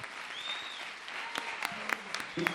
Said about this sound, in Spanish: con el gran aplauso de todos ustedes.